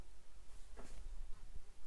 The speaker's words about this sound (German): Junge, hier ist eine Fliege.